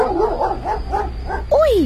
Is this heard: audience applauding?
no